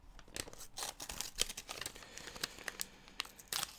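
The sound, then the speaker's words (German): Paper or material being torn and crinkled to make homemade, radio-play-style sound effects, a quiet run of irregular, crackly rips and rustles with short sharp bursts scattered throughout, and no one talking. “Ich finde dieses äh, nostalgische von wegen Hörspielmäßige, dass man so irgendwelche Dinge zerreißt oder sowas, um also einfach die eigenen Soundeffekte zu erzeugen, finde ich echt, auf.”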